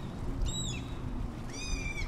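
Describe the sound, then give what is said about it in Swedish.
A gull, one of two gulls trying to keep a swimming beaver away, gives two drawn-out, mewing cries, the second longer and more strained, over a steady low rumble of wind or water. “Den där måsen i...”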